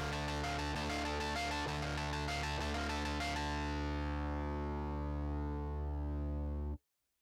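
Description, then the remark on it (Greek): Eerie, creepy music with dense droning harmonics, coming from a kitchen: a quick pulsing passage gives way to a long sustained chord that slowly fades, then cuts off abruptly. Loud, with no voices. “Ξαφνικά ακούστηκε μια φρικιαστική μουσική.”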